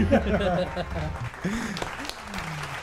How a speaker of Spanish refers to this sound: ¡Aplausos! ¡Aplausos!